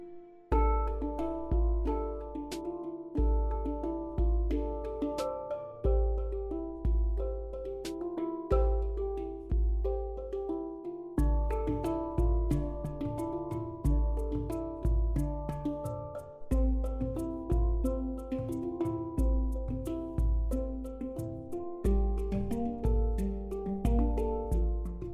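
Gentle, calm relaxation piano music plays steadily on its own, with soft repeating notes over low sustained bass tones, unhurried and even in volume throughout.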